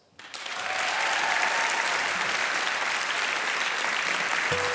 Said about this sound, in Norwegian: Gi henne en varm applaus.